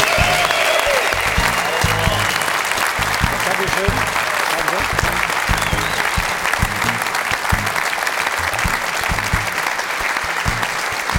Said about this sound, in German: Wenn Sie der Meinung sind, dass er der Richtige, weiterhin der Richtige, der einzige und der beste Experte für den Doppelpass bei Sport 1 sind, dann klatschen Sie bitte jetzt für Stefan Effenberg.